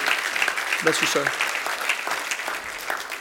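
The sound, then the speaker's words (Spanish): A Spanish-speaking church audience applauds with dense, steady clapping from many hands for a few seconds. A brief voice rises over the applause early on. “Vamos a darle un aplauso y eso es...”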